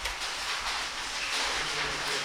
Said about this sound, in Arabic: مطرنا بفضل الله ورحمته